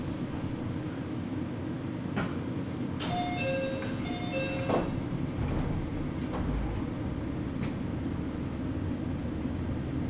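A Nagoya Railroad (Meitetsu) local train running from Agui toward Utsumi rolls along with a steady low rumble, wheels clacking over rail joints every second or two, and a brief high tonal whine rising partway through.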